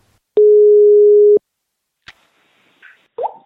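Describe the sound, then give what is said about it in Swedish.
A single steady telephone ringing tone sounds for about a second, loud and clear, as a call is placed, followed by a click and faint rustling line noise as the call connects. “Vi kan ringa upp.”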